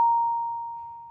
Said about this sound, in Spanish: El pitch es una manera de expresar qué tan alta o baja es la frecuencia de un sonido. Una frecuencia alta o de un pitch agudo suena así